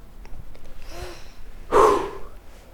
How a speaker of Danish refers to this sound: vil du ikke starte med at lukke øjnene, og så øh, bare lige tage en dyb vejrtrækning og åbne dem igen, når du føler dig klar?